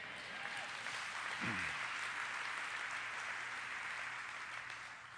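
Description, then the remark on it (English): An audience applauds steadily, giving the Lord a hand, a dense wash of clapping that holds at an even level for several seconds, with a few faint cheers rising briefly above it. “Everybody say amen and give the Lord a hand.”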